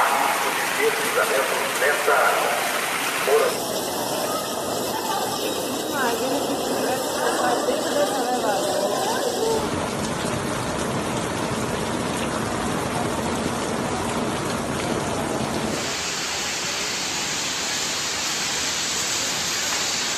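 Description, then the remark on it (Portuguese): Heavy morning rain pours down on the city of Salvador, Brazil, in late November, in a dense, steady hiss that fills the whole recording, its tone shifting abruptly a few times as if pieced together from separate takes. “Salvador amanheceu abaixo de chuva e ao som de sirenes que alertaram para o risco de deslizamentos na cidade.”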